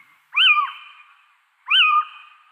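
An owl calls twice, each a loud, nasal, mewing note that rises and then slides down, separated by a pause of about a second. No one speaks.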